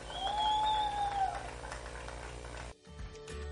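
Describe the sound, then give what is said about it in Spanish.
Golf spectators at the 18th green applaud Spanish golfer Carmen Alonso in a dense, steady burst of clapping lasting under three seconds, with a high whistled tone rising over it early on, before the noise cuts off abruptly. “Nos fuerte el aplauso para la española Carmen Alonso.”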